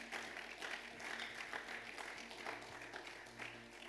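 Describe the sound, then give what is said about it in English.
An audience claps for the Lord during a sermon in a sustained, dense wash of applause, many hands blending into a steady crackling roar at even loudness with a faint low hum underneath. “Give the Lord a good clap in the house.”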